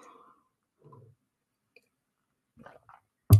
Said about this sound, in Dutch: neem even een slokje thee, anders krijg je een hele droge mond.